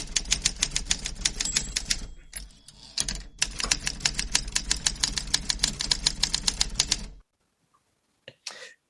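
Rapid, steady typewriter keystrokes clack away for about seven seconds, pausing briefly midway, then stop abruptly; a couple of short mechanical sounds follow after a moment of silence.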